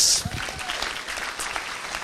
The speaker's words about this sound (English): Okay, round of applause.